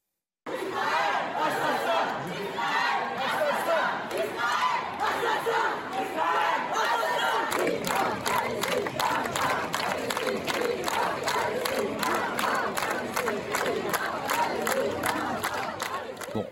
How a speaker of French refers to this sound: il y a des manifestations pro-Palestine. On va en entendre une, d'ailleurs elles sont interdites, mais on va entendre ce qui se dit à Marseille ou à Lyon. Écoutez, on entend sur le sol de France Israël assassin